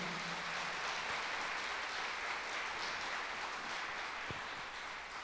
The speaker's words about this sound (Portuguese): Aplauda ao Senhor.